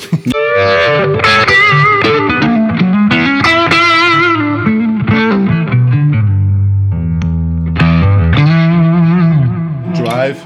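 A distorted electric guitar played through a vibe pedal, the Roger Meyer Voodoo Vibe, its loud, swirling, throbbing chorus-like modulation wobbling over sustained chords and bluesy bends for about ten seconds, with no talking.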